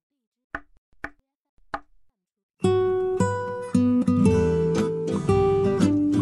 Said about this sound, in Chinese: 第五天的早上，正当我准备放弃寻找他的时候，听到了很轻微的敲门声，像老鼠轻轻溜过地板的那种声音。